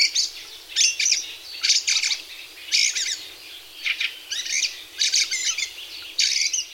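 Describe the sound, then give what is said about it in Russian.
Fieldfare song: a steady series of short chattering, squeaky bursts, about nine phrases separated by brief pauses, with no other sounds or voices. “Весной они поют.”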